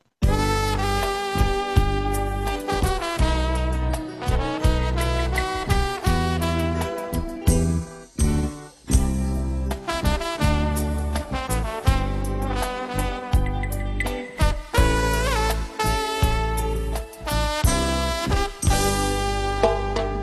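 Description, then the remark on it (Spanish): A song plays alone and up close, rich with sustained melodic tones and chords, staying fairly loud throughout with brief dips around the middle and near the end. No voices talk over it. “Tenemos para ustedes, audiencia, la canción más cobereada, no covideada, cobereada según los récords Es distinto.”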